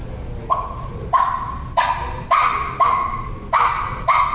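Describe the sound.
A turkey hen's clucking call: seven sharp, mid-pitched clucks repeated at a steady, unhurried pace, each one short and distinct over a low background rumble, with no talking.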